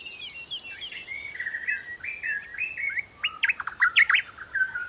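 Birds singing in a continuous run of bright, warbling phrases and quick trills, clear, with a faint steady hiss of background ambience and no voices.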